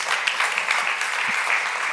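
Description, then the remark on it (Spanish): An audience bursts into sustained applause for the Lord, a dense, steady patter of many hands clapping at once with no pauses, bright and fairly loud, with no voices heard over it. “Un aplauso para el Señor, hermanos.”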